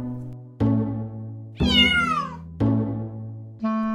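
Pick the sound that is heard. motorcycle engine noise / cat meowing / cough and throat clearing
cat meowing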